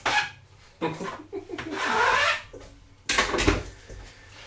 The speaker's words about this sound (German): Die restliche rote Beete, die wird aufgehoben. Dafür öffnen wir kurz den Kühlschrank und heben das Ganze auf.